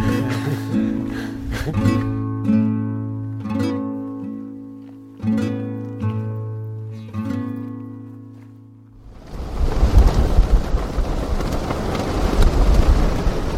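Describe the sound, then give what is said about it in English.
A short passage of ringing, tonal music gives way to a loud, steady roar of wind whipping and fluttering through a thousand prayer flags on the north side of a mountain, filling the last few seconds without any voices. “This sound could be a yak dung fire inside a stove, or rain falling on a roof, but it's the wind ripping through a thousand prayer flags on the north side of the mountain.”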